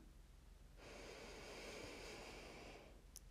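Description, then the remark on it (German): A single long, steady inhale through the nose during a breathing exercise, a soft airy hiss lasting about two seconds, alone with no talking. “Das heißt, wir atmen kräftig ein und atmen dann vollständig aus, also wirklich, dass die Lunge komplett leer ist.”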